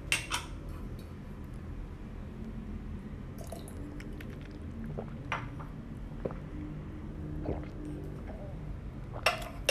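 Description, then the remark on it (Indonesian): Someone drinking water: a series of soft, wet gulps and swallowing clicks at irregular intervals over a steady low background hum, with a sharper gulp at the very end. “Aku mau minum lagi ya.”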